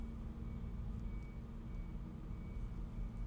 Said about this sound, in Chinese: 卡车在倒车，是不是？